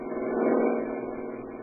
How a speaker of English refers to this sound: Here comes a car with only one guy in it.